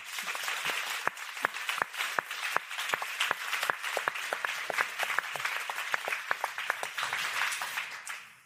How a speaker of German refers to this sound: Bitte ein großer Applaus für Arno Grünberg.